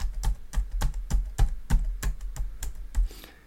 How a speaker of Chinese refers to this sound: 作者说他哥哥在刚使用电脑的时候，打字速度很慢，大概就像这样。